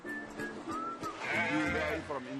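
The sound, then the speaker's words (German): Sheep bleat in a loud, quavering chorus, several overlapping calls with a wavering tremor, the strongest cry swelling in the middle before trailing off into softer bleats. “Nur vor den Atlantikwellen muss man die Schäfchen beschützen.”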